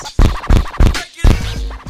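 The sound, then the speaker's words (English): A short snippet of a vinyl record replayed by a DJ repeatedly picking the needle up and dropping it back on the record, so the same punchy fragment restarts about four times in quick, slightly uneven succession like a loop, loud. “Needle dropping is a style where you pick the needle up and drop it back on a record, and the record actually sounds like it's looping.”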